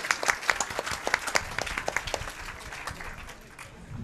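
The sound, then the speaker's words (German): An audience at a congress applauds as a guest comes on stage, with dense, overlapping claps that are strongest at first, then gradually thin and fade over about four seconds. No one speaks. “Applaus für Patix!”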